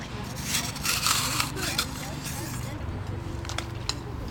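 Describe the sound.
Repeated gritty scraping against soil, a tool rasping in short uneven strokes, close by, with voices faintly in the background.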